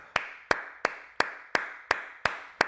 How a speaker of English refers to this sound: Give me, give me, give me a hand clap